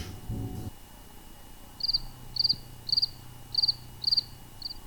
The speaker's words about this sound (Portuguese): Olhe, em antes de tudo, a criatividade não soava a nada. Como ninguém dizia nada e só se ouviam os grilos,